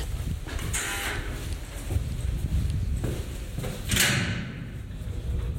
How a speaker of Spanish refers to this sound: Al llegar a la planta baja se toca un botón que abre la puerta.